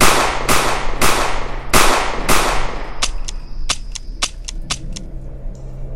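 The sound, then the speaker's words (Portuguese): A rapid series of loud gunshots, about five heavy blasts in steady succession followed by a quicker run of sharper, lighter cracks, like a handgun being emptied. “Fiquei de pé sobre ele e descarreguei cada bala que estava em seu crânio.”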